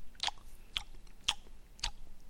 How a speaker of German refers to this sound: Schmatzen beim Essen. Es regt, es regt mich tierisch auf.